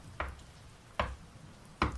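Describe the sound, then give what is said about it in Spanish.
Three slow, evenly spaced knocks on a door at three in the morning, fairly loud, with short quiet gaps between each dull thud and no voices. “ya como que empezaba a cerrar los ojitos, ya me estaba como que yendo y empiezo a escuchar de que en la puerta, tipo”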